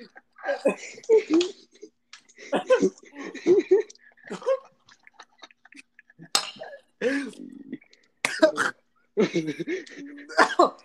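Sputtering coughs break out in several sharp bursts, tangled with breathy laughter and choked vocal sounds, as someone struggles to clear their airway after water went up their nose while laughing.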